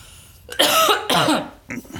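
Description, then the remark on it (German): Two forceful, raspy coughs in quick succession, followed by a shorter, softer cough or throat clearing. No one speaks. “Moment, ich muss kurz husten.”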